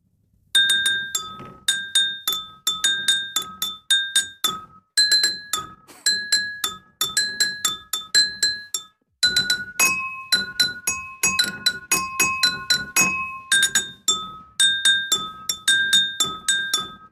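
A spoon taps five filled prosecco glasses, ringing out bright, pitched clinks in a steady rhythm that form a simple song melody, played alone with brief pauses between phrases.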